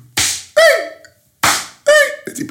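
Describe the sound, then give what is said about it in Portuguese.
A voice mimics slapping smacks, imitating slaps heard from neighbours next door: two sharp, breathy smack sounds, each followed by a short, pitched yelp, repeated in a quick pair. “Epá, uma coisa é foder, outra coisa é eu estar a ouvir as vossas chapadas, pá, porra.”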